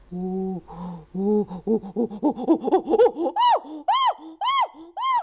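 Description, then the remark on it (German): Chimpanzee calls build from low, breathy hoots into a quickening series of panting cries, then peak in several loud, shrill screams. The vivid calling comes alone, with no talking. “Da gibt es Flüstern und Lachen, das Klagen der Babys und die lauten Rufe quer durchs Tal, bei denen jeder seinen eigenen Klang hat.”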